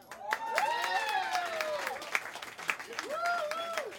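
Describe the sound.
A crowd applauds with steady, dense clapping for about four seconds, while raised voices and whoops rise and fall over the top.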